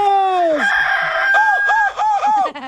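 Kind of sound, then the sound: bird, rooster crowing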